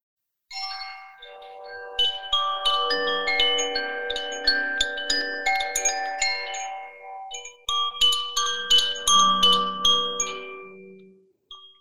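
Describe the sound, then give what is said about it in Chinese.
A Koshi Chime wind chime rings on its own as a sound-healing demonstration, a steady shimmer of overlapping bright tones that keep striking and sustaining, swelling with each fresh cluster of strikes over roughly eleven seconds with no talking. “嗯，好，我目前手边有一个风铃，它叫做 Koshi Chime，嗯，它是大家一听到都觉得很放松的声音。”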